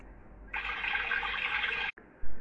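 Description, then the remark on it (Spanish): A steady rush of flowing stream water, moderately loud, runs for about a second and a half, then cuts off abruptly. No one speaks. “Cruzaron el arroyo”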